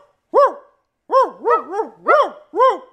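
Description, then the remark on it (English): A person imitates a dog, barking at a real dog, letting out a loud series of about six woofing barks: one alone, then a quick run of three, then a few more spaced out. “Look, look we gonna bark at the dog.”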